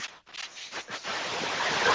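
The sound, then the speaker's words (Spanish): A dolphin splashing and churning water, first in a few separate bursts, then building into a steady rushing wash of spray that fills the last second, with no voices. “Pero este, el delfín está. está chapoteando.”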